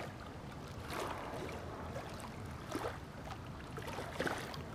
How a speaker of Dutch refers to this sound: Hier aan de rand zit ik en er zijn eh, rotsblokken die normaal toch echt wel flink onder water komen te staan, maar nu niet. Maar het klotst toch nog aardig zo door.